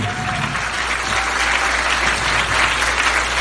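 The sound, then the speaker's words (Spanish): Sustained audience applause, a dense, steady wash of many hands clapping at an even loudness throughout, with no voices standing out, as the audience gives itself a round of applause. “Regálate un aplauso, vamos por el segundo.”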